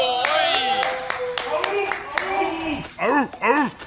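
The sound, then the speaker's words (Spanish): Scattered hand claps from an audience ring out steadily, mixed with loud cheering voices and rising, swooping whoops that grow stronger toward the end. “¡Un aplauso!”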